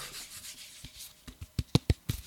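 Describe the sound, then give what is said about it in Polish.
Fingers rub the napkin-like fabric covering of a waterproof portable speaker held up to the microphone: soft, hissy scratching that turns into a quick run of sharper, louder rasping strokes toward the end, with no talking. “może tak zbliżę do mikrofonu, jeśli chodzi o fakturę, żeby pokazać, to, to wygląda mniej więcej tak.”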